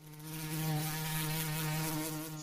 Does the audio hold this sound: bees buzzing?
yes